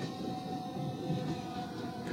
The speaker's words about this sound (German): Gleis 5, Einfahrt RB 27 nach Mönchengladbach Hauptbahnhof über Köln Hauptbahnhof. Abfahrt 13.19 Uhr. Heute nur bis Grevenbro. Wir informieren Sie über Anschlüsse im Zug. Vorsicht bei der Einfahrt.